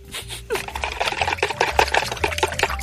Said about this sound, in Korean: 아, 엄마, 설거지 또 그렇게 해야 돼? 아, 그릇 소리 때문에 시끄러 워 집중이 하나도 안 된다고.